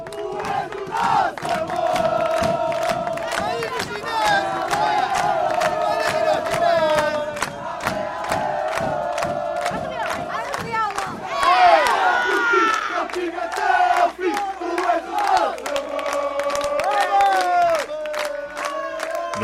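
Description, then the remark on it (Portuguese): A stadium crowd shouts and chants in support, a loud, continuous roar of many voices with rhythmic chanting and sharp whistles or cries rising through it. “O espetáculo esse, entre gritos e cânticos de apoio, vinha das bancadas.”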